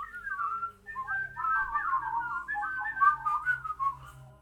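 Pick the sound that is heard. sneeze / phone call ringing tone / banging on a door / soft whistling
soft whistling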